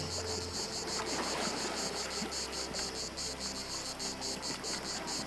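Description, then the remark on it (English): Soft, steady wash of gentle Aegean Sea waves lapping at the water's edge of an uninhabited Greek island, with a chorus of crickets chirping in rapid pulses layered over the water; no voices. “Calm Anxiety with Gentle Waves on an Uninhabited Greek Island”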